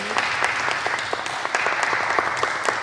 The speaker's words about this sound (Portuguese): Queria agradecer-vos a todos ah, foi o último dos nossos, dos nossos podcasts ao vivo. Quero agradecer e pedir uma salva de palmas